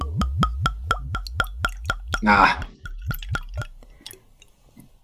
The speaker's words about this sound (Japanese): まずは赤からいきますかね。はい、乾杯しましょうか。はい。グラスに、ワイングラスがいいということですので。そうですね。はい、注ぎます。